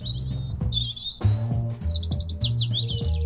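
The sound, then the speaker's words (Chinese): Many small birds chirp and tweet continuously in high, quick overlapping calls in spring as cherry blossoms bloom, heard over a steady low musical backing with repeating soft notes. “春天，樱花开了，招来了许多的小鸟。”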